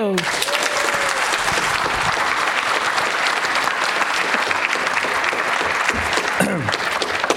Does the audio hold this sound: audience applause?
yes